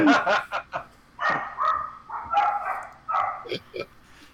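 A dog barks in several quick clusters of short, raspy yaps, fairly loud, with an almost chuckling, laugh-like quality and brief pauses between bursts.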